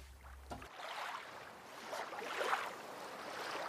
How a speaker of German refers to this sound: Die Wasseroberfläche ist spiegelglatt. Sanft gleiten wir dahin. Es ist ganz still um den See. Nur das gleichmäßige Eintauchen eines Paddels ist zu hören.